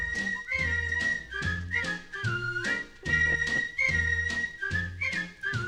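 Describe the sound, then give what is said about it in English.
A bright whistled melody from a 1954 vocal-group Christmas song glides and trills over a bouncy old-fashioned band accompaniment with a steady rhythmic pulse, loud and up front, with no singing or talking. “It's from 1954. All right, this is number six. … by ….”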